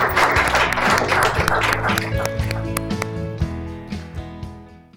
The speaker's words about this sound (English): That was good. I think we should clap.